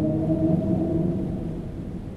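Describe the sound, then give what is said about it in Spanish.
A deep, drawn-out roar like that of a gigantic sea creature, low and rumbling with steady tonal overtones, holding for a couple of seconds and slowly easing off, with no voices. “Debo decir que había escuchado animales marinos antes, y por supuesto a las ballenas, pero aquello era algo que no tiene comparación, y a juzgar por la manera en que resonó, debía ser un animal de dimensiones bíblicas.”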